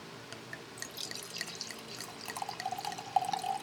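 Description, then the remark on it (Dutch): Wine pouring into a glass, a steady trickling splash with small bright clinks and gurgles rising toward the end, with no voices. “En ik uh, schenk jou wat in.”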